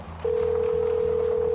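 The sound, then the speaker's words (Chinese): A telephone ringback tone on a call to the Red Cross operations manager: a single steady, mid-pitched electronic tone comes in loudly after a brief pause and holds unbroken to the end, over a low background hum. “然后我又反过去又给红十字会的运营主管打电话，”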